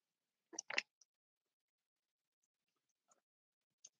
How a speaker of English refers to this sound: Let me get a sip of water.